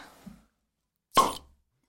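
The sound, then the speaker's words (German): A bottle pops open with one sharp pop and a brief fizzing hiss trailing off, preceded by a faint soft handling noise and followed by silence. “Ich nehme dir jetzt mal einen Plop auf.”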